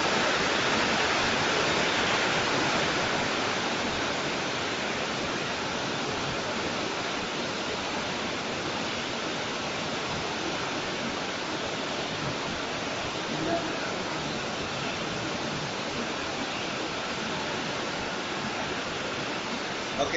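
Heavy rain pours down in a loud, unbroken roar, a dense steady hiss that holds at the same level for the whole twenty seconds without individual drops standing out.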